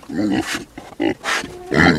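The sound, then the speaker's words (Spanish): Pigs grunt and snort in a handful of loud, rough bursts, with a few higher squealing notes mixed in over about two seconds. “Y le dieron uno preciosísimo, cuidar cerdos.”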